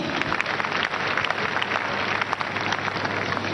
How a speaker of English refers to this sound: Let's clap for him.